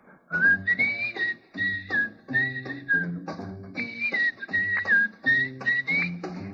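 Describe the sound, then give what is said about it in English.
Jazz musician Bobby Haggart whistles a lively tune over a small band, the clear melody moving in short phrases with brief gaps between them and sustained notes, loud. “How about whistling along with him?”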